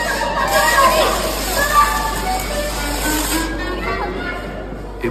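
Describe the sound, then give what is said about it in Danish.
A powder fire extinguisher blasts in a steady, loud hissing rush for several seconds, fading near the end, while a crowd of voices murmurs and calls out underneath; a member of parliament sprays it inside the parliament to put out Hanukkah candles set up for the Jewish holiday. “Han tog sådan en pulverslukker ude i parlamentet og slukkede nogle lys, så nogle Hanukkah-lys, der var stillet op for at fejre jødernes højtid.”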